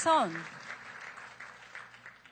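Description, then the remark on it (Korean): An audience at a community service certificate presentation applauds with steady, dense clapping that carries on at moderate loudness, just after a short voiced sound at the very start. “박수로 격려해 주십시오.”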